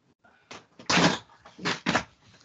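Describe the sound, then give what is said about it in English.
A package being torn and rustled open during a live broadcast: a few scratchy, ripping bursts of paper or plastic, the longest and loudest in the middle, with short pauses between them and no talking. “Well, I was opening a package live on the air.”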